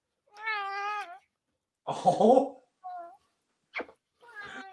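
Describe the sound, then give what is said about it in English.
A big, purebred male ragdoll cat meows, a drawn-out cry followed by shorter, scattered mews and a rougher, strained call in the middle, with a brief spoken exclamation between them. “He's a big ass cat. Not gonna lie. He's a ragdoll cat.”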